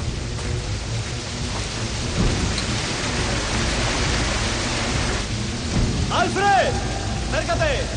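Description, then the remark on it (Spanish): A waterfall in a cave roars with a steady, dense rush of water that stays loud and unbroken throughout, with a few brief wavering vocal tones rising over it near the end. “Al momento está junto a la cascada de agua.”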